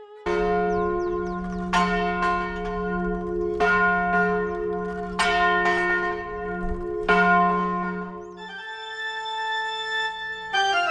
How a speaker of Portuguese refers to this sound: Para relembrar esse mistério sem solução há décadas, os sinos tocam todo ano em 2 de setembro ao meio-dia.